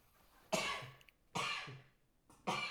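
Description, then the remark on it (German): Three sharp, forceful coughs from a person with a slight cold, spaced roughly a second apart, each a broad noisy burst that fades quickly, with no talking. “Das ist doch auch nicht Niesen, das ist doch Husten.”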